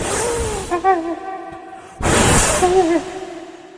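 Two breathy bursts of blown air, each a short rushing whoosh, separated by a brief pause, with faint humming tones in the background: someone blowing sand off another.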